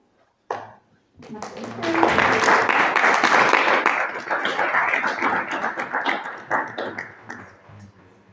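A big round of applause from a crowd at a church audience's seminar, dense steady clapping that swells quickly, holds loud for several seconds, then gradually thins and tapers off.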